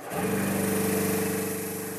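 A snow cannon being tested at Trysilfjellet starts up and runs steadily, spraying only water. Its motor drones with a low humming tone under a broad, loud rushing hiss of sprayed water. No one speaks.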